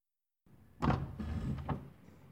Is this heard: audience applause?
no